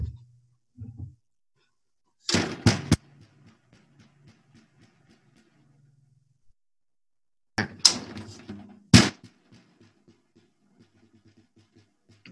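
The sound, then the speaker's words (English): A broken snare drum is struck in two short clusters of sharp, loud hits, each followed by a dull, rattling buzz that trails off into near silence between strikes. “A snare Broken drum. snare drum. Broken snare drum.”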